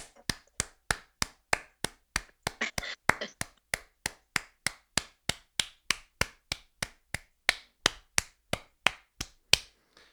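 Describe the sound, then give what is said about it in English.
Steady, evenly spaced claps ring out at about three per second for the whole stretch, crisp, like a small audience clapping in time after a song rather than a dense roar of applause. “I think the applause was longer than the song.”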